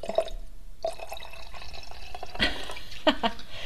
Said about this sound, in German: Und ich glaube, die Hörer sind gerade froh, dass sie wieder dieses vertraute Geräusch gehört haben. Wir haben uns eingeschenkt.